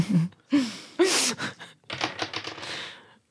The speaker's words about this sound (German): Müssen wir wieder würfeln, aber ich darf ja nicht mehr, ne?